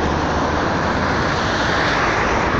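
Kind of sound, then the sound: vehicle, passing car traffic noise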